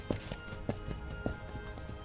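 Horse hooves clip-clop at a galloping pace, sharp paired beats repeating in a quick, rolling rhythm, over a steady low background drone.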